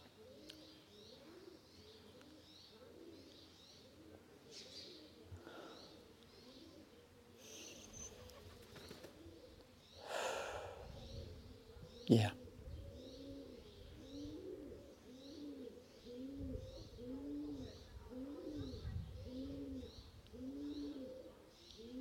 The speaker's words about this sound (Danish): Der er rigtig mange duer her.